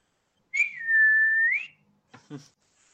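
A person whistles one long, steady note that slides upward at the end, loud, followed by a couple of brief scuffing sounds.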